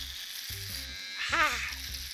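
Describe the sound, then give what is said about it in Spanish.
An electric shaver buzzes steadily for a couple of seconds at moderate loudness as a man shaves the hair off his hands, its motor drone rising and dipping slightly, with a brief voice-like sound overlapping midway. “Y lo que escucha público, se está este sujeto depilando las manos.”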